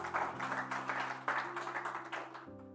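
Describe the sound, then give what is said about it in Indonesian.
A crowd claps hands for the Lord Jesus during a sermon, a steady, sustained burst of overlapping claps, loud throughout, with sustained musical tones holding underneath. “Ayo, sekali lagi berikan tepuk tangan bagi Tuhan Yesus.”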